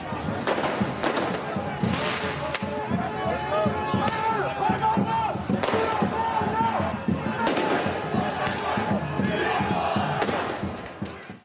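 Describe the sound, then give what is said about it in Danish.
Sharp fireworks blasts crack out several times during a demonstration, over a loud crowd singing and chanting slogans, with shouting voices filling the space between the bangs in a busy outdoor scene. “Demonstrationen den kom dog hurtigt tilbage på sporet, og så fortsatte det ellers med sang, kampråb lidt mere fyrværkeri.”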